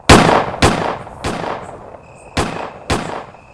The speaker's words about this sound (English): Everyone, wah, wah. shoot your guns in that direction.